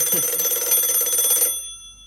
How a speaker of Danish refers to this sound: Men Biver, han har sat nogle kæder op, så hans vækkeur bliver udløst, og så står de tre bøger derinde midt i stuen.